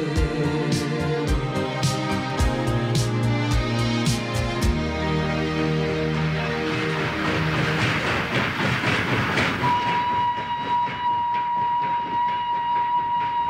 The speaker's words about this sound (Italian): villaggi di frontiera guardano passare i ….